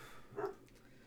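A single short dog bark sounds once in the background, muffled, against a quiet low hum with no one talking.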